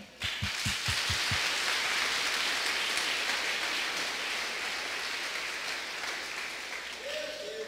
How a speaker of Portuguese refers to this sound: Essa, essa salva de palmas você, você deu para você mesmo. Você aplaudiu você mesmo, porque você merece.